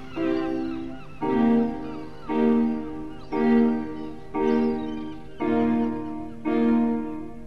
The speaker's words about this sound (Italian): sentite i gabbiani sotto